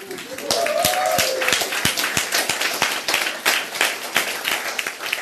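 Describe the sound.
An audience at re:publica, standing and turned around, applauds the technical crew after a stage performance: many hands clapping in a dense, sustained patter with some sharper individual claps standing out, while a voice briefly calls out over the noise near the start.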